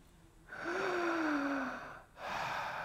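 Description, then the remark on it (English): A voice imitates the slow, labored gasping breaths of a 98-year-old hospital patient who had three heart attacks: one long, drawn-out raspy inhale with a slight voiced groan, then another breath beginning right after, fairly loud, with no talking. “I was called up as a hospital chaplain to his room, and Harry was breathing slow and slower”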